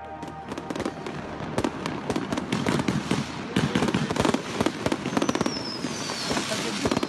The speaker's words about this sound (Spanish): De madrugada, a eso de las 2, algunos hinchas peruanos se habían reunido afuera del hotel donde la selección neozelandesa dormía y organizaron una especie de espectáculo improvisado de fuegos artificiales.